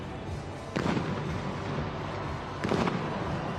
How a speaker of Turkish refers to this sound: Havai fişek gösterisiyle başlayan kutlamalar sabaha kadar sürdü.